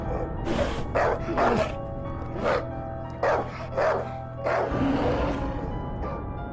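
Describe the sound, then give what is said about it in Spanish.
A dog barks repeatedly in sharp bursts, about eight or nine barks in an uneven rhythm, with a low growling rumble underneath between them. “Este último gruñía y ladraba, al mismo tiempo que demostraba miedo y se le erizaba el pelaje del lomo”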